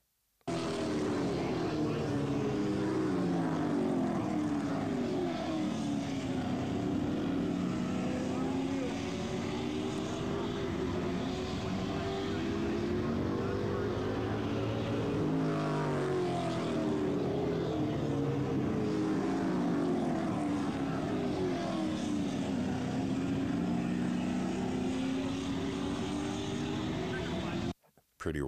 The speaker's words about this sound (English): That's a that's a Chevy small block 350 two carburetor his and uh, crazy. So his is super modified and just so stark contrast so you can hear when he was racing there was a bunch of other classes that were racing that night uh, as well.